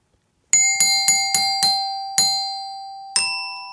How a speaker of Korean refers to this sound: 자, 지금부터 잘 들어보세요. 이 실로폰 연주 열심히 연습했거든요. 갈게요.